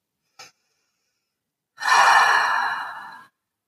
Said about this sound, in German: Atemzug.